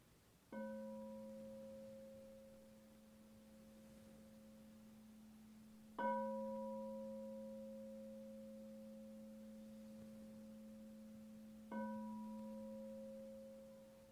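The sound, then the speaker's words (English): A meditation bell is struck three times, about six seconds apart, each clear resonant tone lingering and slowly fading into quiet. No voices are heard. “So I'll just ring the bell to. let these words uh, dissolve and go back to the silence.”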